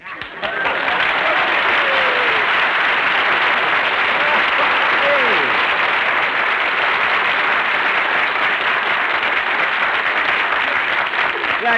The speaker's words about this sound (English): Dude, everybody on the street is applauding. they all like Lucky Strike.